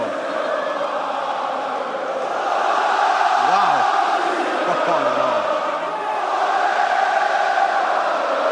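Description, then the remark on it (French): A huge arena crowd at a UFC event at Bercy in Paris sings the French national anthem, La Marseillaise, together, a dense, loud wall of massed voices that swells midway and carries steadily throughout, with no one speaking over it. “Vous la foule, Oh, une Marseillaise appréciée, oh”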